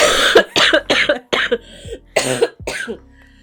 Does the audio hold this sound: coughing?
yes